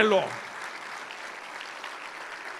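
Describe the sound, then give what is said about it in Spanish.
A church audience claps together as an applause to the Lord in a dense, steady wash, holding at an even, moderate loudness after a voice's last word cuts off at the very start. “Denle un aplauso al Señor, déselo usted, no deje que otros lo den,”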